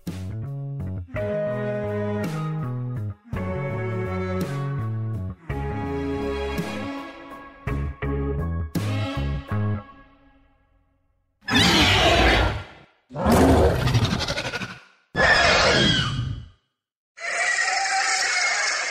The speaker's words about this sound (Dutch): Ja, we een, eh, een dinosaurus. Ik weet eigenlijk niet precies welke, welke soort we net hoorden. Maar het is een, eh, een van de vele dinosaurussen die hier eh, tot 66 miljoen jaar geleden over de aarde stampten. En die klonken echt zo.